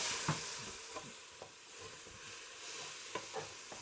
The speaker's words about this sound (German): Also, wir haben vier Minuten lang anraten, bis die Zwiebel jetzt weich ist.